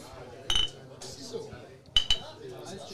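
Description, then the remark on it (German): Glasses clink together in a toast, a bright ringing tap followed a moment later by a quick double clink, crisp over a low murmur of background noise. “Prost. eben schon bei Veranstaltungen”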